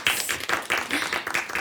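Audience applause welcoming the speaker at an evening lecture: a dense, steady patter of many hands clapping at once, bright and crackly, holding at an even moderate loudness throughout the short stretch.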